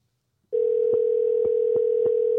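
signal or alarm, phone ringback tone

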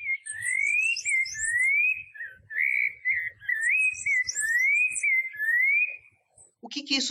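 bird, rufous-bellied thrush song

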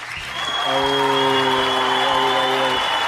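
crowd, round of applause

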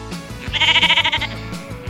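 animal, sheep bleating

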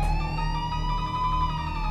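vehicle, police sirens approaching

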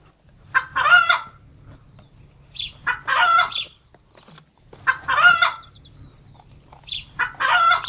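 animal, hen clucking

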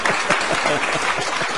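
crowd, applause

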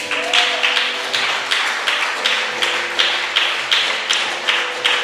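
crowd, audience applauding

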